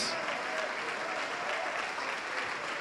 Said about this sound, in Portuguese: Vamos aplaudir mais ao nome do Senhor, está chegando mais gente.